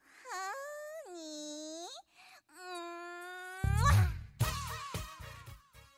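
A Korean dance-pop song opens with a long, sliding wail-like vocal, then a heavy thumping beat and deep bass kick in partway through, loud and upfront.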